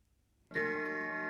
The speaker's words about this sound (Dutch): De zware oude staande klok in de woonkamer sloeg tien keer.